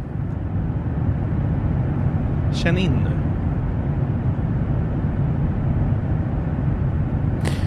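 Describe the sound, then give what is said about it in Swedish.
A steady, loud airplane cabin engine drone fills the whole stretch, a constant low roar that never changes, with a short spoken phrase briefly heard over it. “du ska vara glad att du ens fått sitta på det här planet.”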